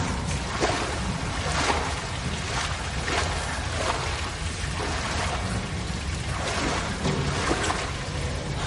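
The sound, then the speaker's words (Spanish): A steady, heavy rush of water splashes and pours continuously as jets of water fall from the ceiling of a flooded room full of pipes, dense, with a low rumble underneath and no voices. “Caen chorros de agua desde el techo.”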